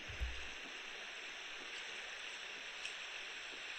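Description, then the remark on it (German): A steady, rushing whoosh from a womb sound recording for soothing babies, played from a ten-hour playlist; quiet and continuous, with a soft low thump near the start and no voices. “gibt einfach mal Mutterleibgeräusche Baby ja. bei YouTube ein, da findet man das”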